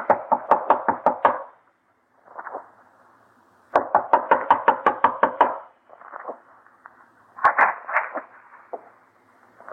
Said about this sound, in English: knock. You better stand back.